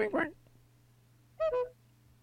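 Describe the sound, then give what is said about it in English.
A vehicle horn sounds: a short blast, then after a pause a quick double honk, moderately loud against a steady low hum. “Let me hear that horn again.”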